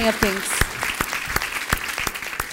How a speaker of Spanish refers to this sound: Denle ese fuerte aplauso. Ahora sí al Rey de Reyes.